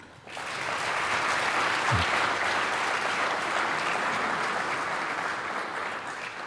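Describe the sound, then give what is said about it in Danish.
Sustained applause from an audience in an auditorium at SDU in Odense, a dense, steady clatter of many hands clapping that swells in quickly and holds at an even level for several seconds with no talking. “Giver også ham en stor hånd.”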